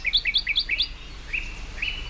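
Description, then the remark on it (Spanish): A thrush and another songbird sing at the same time: a quick run of four sharp, repeated two-note phrases, followed by longer, smoother high whistles, with no voices. “Están cantando los dos a la vez, cada uno va al suyo, pero uno tiene una voz dulce y el zorzal tiene una voz como muy imperativa.”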